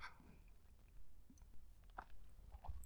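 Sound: sipping coffee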